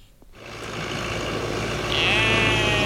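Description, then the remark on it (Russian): Farm animals sounding off at the Yuri mini-zoo in Latgale, home to llamas, fallow deer, kid goats, ponies, camels, dwarf sheep, donkeys, horses and rabbits, with a drawn-out bleat rising near the end over a steady, noisy outdoor background. No one speaks. “В мини-зоопарке Юри тоже многоголосие раздается по всей территории.”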